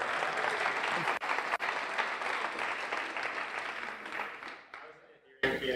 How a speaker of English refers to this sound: Anyone uh, should look up uh, my friend Michael Malice. He's a brilliant guy. Everyone, a round of applause.